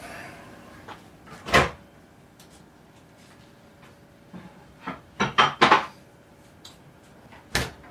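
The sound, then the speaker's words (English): A fridge door being opened and shut as a glass bowl of bread dough is put on the top shelf of a fridge that sits on top of a freezer, with a sharp clunk early on, a quick cluster of four knocks and thuds midway, and one final firm thump. No one speaks. “Let's put this back in the fridge.”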